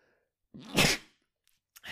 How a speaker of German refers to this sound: Gesundheit, danke.